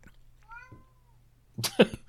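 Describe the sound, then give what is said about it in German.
A cat meows in complaint at its owner: a faint, drawn-out mew first, then a louder, harsher cry near the end, over a low steady hum. “Der hat ich dachte ja schon, das wäre unsere Katze hier.”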